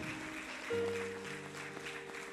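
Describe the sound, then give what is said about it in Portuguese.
An audience applauds God in a dense, steady wash of clapping. Partway through, a sustained organ-like chord enters and holds underneath the clapping. “Aplaude a Deus, aplaude acreditam.”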